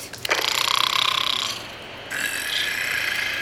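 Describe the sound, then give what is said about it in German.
A harsh, rattling mechanical snore, like an old locomotive wheezing, is heard in a mine tunnel. It comes in two loud rasping bursts separated by a brief pause, with a fast ratcheting pulse in the first burst and no voices. “Ja, ich höre es auch. Ist das ein Schnarchen?”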